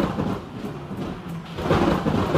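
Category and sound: nature, thunderclap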